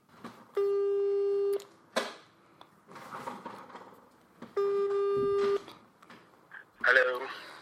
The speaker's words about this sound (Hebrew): והנה אני מתקשר אליו, ונשמע מה יש לו הפעם.